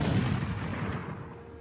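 A single loud gunshot sound effect with a sharp, booming burst at the start, then a long rumbling echo that slowly fades away. No one speaks.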